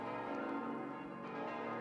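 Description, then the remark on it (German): Church bells ring in Christmas continuously, several tones overlapping into a dense, sustained peal that stays at a steady level throughout, with no voices. “Glocken läuten die Weihnacht ein”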